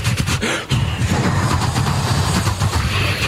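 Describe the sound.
A voice imitates a train toilet flushing with suction, a loud, steady, rumbling whoosh that breaks off briefly and then continues, with no words spoken.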